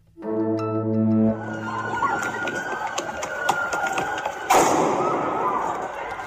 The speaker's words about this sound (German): Das, was Sie da gerade gehört haben, waren Zusammenstöße von der Polizei und Demonstranten auf Korsika.